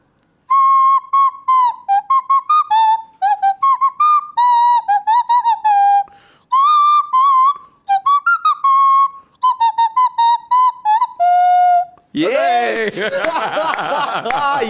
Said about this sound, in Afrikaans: volksvreemde naam, maar ek noem hom neusvluitjie.